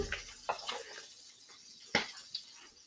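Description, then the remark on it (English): Butter sizzles in a hot pan being buttered to make a quesadilla: a steady, soft frying hiss with scattered sharp pops and crackles. Fairly quiet, no voices. “So we are going to quick assemble all the ingredients so first we're going to butter our pan. Yeah, man. Hear that sizzle?”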